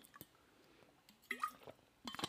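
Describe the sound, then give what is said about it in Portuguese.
Someone takes a quiet sip of water, with soft wet mouth clicks, a brief swallowing gulp and a few small liquid sounds, no talking. “Desculpem, vou só beber água.”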